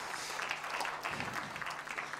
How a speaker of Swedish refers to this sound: Vi ska ge Maria och hela det här teamet en applåd också.